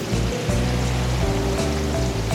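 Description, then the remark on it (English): Loud, steady rush of rising floodwater surging past, nearly reaching the speaker's feet, continuous throughout with a faint low hum beneath and no voices. “The water is nearly at my feet now.”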